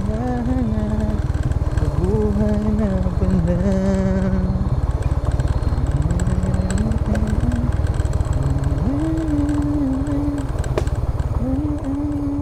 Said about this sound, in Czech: Můj řidič si zpívá. Ptám se ho, zda se nebojí, že mu do pusy vletí moucha.